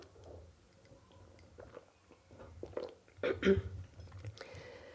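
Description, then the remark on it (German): Someone takes a drink of water: soft wet mouth noises and small sips build to a louder gulp and swallow near the end, with no talking. “Ich trinke mal einen Schluck Wasser.”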